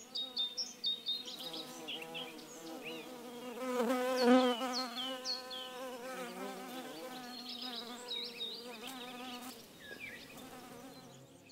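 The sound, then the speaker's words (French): Honeybees buzz steadily in a dense, droning hum, many insects together, with the pitch wavering as individual bees pass, continuous throughout with no voices. “est-ce qu'on peut dire que l'abeille est une espèce domestique”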